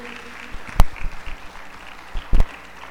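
Scattered applause from a gathered crowd answering a call to say amen, clap, whistle or make noise: a few sharp, loud claps stand out over a murmur of lighter clapping and background noise, with no one speaking.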